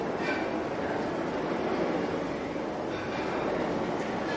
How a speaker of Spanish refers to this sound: Y nos va a acompañar el sonido del mar. Un sonido acuático porque de una u otra forma el llegar y el irnos creo que siempre está muy relacionado con el agua.